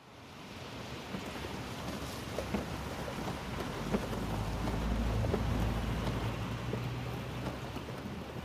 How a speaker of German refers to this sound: Cheryl konnte sich nicht daran erinnern, wann es zum letzten Mal so stark geregnet hatte. Sturzbäche prasselten vom Himmel und tränkten die Erde, bis sie nicht mehr aufnahmefähig war